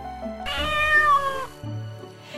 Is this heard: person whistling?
no